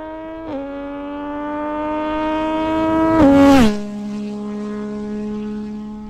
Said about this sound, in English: Ah, the MT-09 with a full arrow system making a flyby.